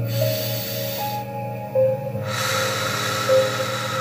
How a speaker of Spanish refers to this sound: Entonces vamos a tomar respiraciones profundas. Por la nariz lo soltamos. Tomamos una vez más una respiración.